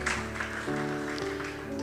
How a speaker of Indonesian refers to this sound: Berikan tepuk tangan, haleluya.